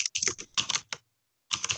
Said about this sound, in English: I'm really gonna... typing this in to Google